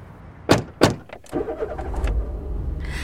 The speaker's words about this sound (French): Allez, viens, on remonte en voiture. Ok, on y va.